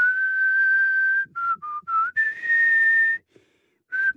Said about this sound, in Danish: Skal lige fløjte den? Ah, okay. Det er svært at fløjte, når man skal til at grine.